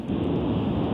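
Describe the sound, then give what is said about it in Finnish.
Steady, loud wind roar from riding a motorcycle, a dense rushing rumble strongest in the low and middle range, continuous without pauses or voices for the whole second. “Ihan tässä Motorilla ajelen.”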